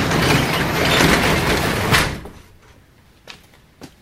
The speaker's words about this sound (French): Ce sera pas long, je reviens. On ferme la porte fermer la porte.